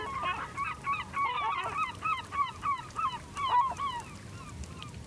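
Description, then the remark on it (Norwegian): A dense chorus of seabird calls, harsh honking cries overlapping rapidly in a steady, busy stream over a low rumbling background, with no voices. Recorded on Røst with one microphone inside a nest and another clipped to a small flower outside the nest. “den ene mikrofonen ligger inni et reir, mens den andre er kneppa fast til en liten blomst på utsiden av reiret.”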